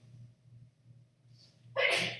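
A single sharp sneeze bursts out near the end after a moment of quiet room hum, loud with a brief inhaled buildup before it.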